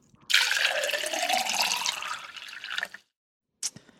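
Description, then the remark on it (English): Water is poured into a glass for about two and a half seconds, its pitch rising as the vessel fills, followed by a brief splash or clink after a short pause. “do you want to pause and we get yeah. some water?”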